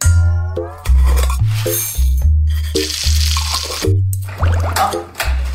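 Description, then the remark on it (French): Small plastic sushi takeout containers crinkle, click and rattle as they are handled, in irregular bursts over a steady, low, thumping musical backdrop. “Là, ce que le bruit que vous entendez, là, c'est les petits pots euh, qui contiennent les sushis.”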